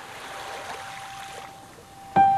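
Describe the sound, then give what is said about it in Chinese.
Light drizzle falls on the sea at nightfall as a soft, steady hiss that thins out slightly, with a faint sustained tone beneath it and a sudden louder tonal sound breaking in at the end. “现在大海又重新下起了雨，但是雨不是狂风暴雨，而是好像是江南的那种毛毛雨，轻轻柔柔的打在海面上。”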